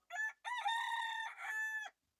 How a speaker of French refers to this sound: Alors les chant du coq, hein, ça fait du bien quand même hein, quand on l'entend celui-là.